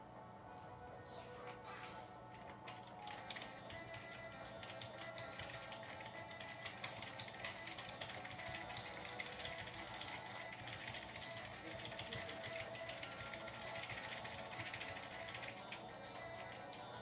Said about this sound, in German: drückt gar nicht wild auf der Tastatur rum